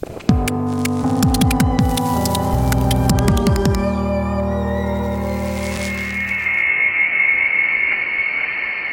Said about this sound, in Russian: Это звуки космического аппарата Voyager 1.